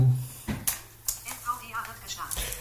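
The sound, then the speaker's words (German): Scattered plastic clicks and clatter from a computer keyboard being handled or tapped while things are being set up, a handful of irregular knocks, with faint voices and a low hum in the background. “Die Tastatur brauche ich dazu.”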